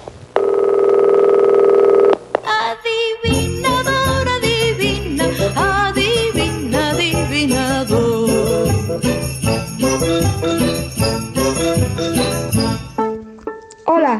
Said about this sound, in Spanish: Deja tu mensaje después del tono.